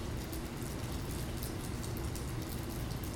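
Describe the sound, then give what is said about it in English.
Steady rain falls continuously, a dense wash of patter and droplets with a soft low rumble underneath, even throughout with no voices. “I feel like I say this every podcast, but I really do love the rain.”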